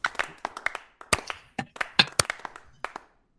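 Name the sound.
one person clapping hands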